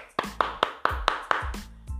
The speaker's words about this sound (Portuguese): eu não tenho efeito de palminha aqui, tá? Não sei se você escutou a minha.